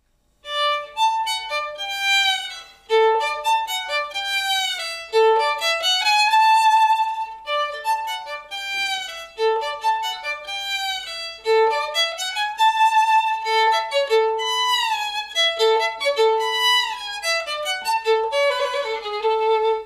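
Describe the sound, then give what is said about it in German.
A playful melody depicting a cat, played by a reedy solo instrument with sliding, swooping notes and short repeated phrases, loud, no voices. “Ich kenne ein Stück, da kommt eine Katze vor. Das klingt so.”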